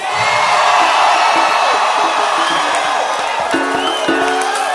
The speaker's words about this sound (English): Can I hear a shout?